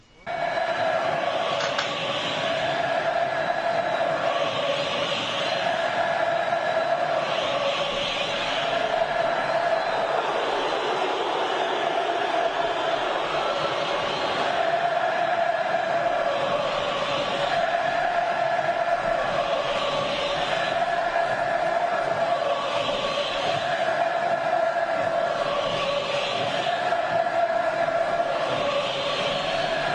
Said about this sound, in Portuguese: Realmente essa, esse período de retomada desse canto de zero zero foi muito bonito. E agora aos, aos poucos ele foi perdendo um pouco a força, mas ainda é muito cantado que é o grito mais tradicional da torcida.